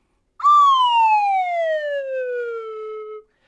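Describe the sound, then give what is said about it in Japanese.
A single loud whistle tone from a wave-whistle device glides steadily downward in pitch for about three seconds, like a slow falling slide, representing a graph dropping sharply, with nothing else around it. “ウェーブホイッスルとは我々番組が誇るですね、えー、最新テクノロジーでございます、はい、じゃあちょっとやります代わり,、代わりにね、えー、昨年4月緊急事態宣言で大学に通えずグラフ急降下”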